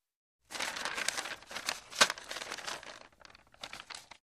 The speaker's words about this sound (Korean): 헤르만은 왼쪽 더미를 들춰본다. 찾던 종이를 발견한다.